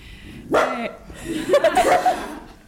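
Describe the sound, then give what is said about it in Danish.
A dog named Oscar, who has spotted an animal underneath something, barks sharply once, then lets out a quick run of yappy, excited barks and yips, loud against a quiet background. “Signe har taget sin øh, hund Oscar med, som I ja. kunne høre.”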